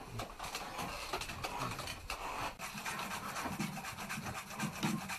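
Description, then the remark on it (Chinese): Continuous dry rasping and rubbing as rough muji grass, a Chinese medicinal herb used in place of sandpaper, is scrubbed back and forth over a black paper fan's surface to polish it, a steady scratchy texture with slight rhythmic pulses, fairly loud, with no talking. “可能在古代的人呢发发明这个扇子的时间里没有沙皮，想出一个办法，就是用这个草来代替这个沙皮。”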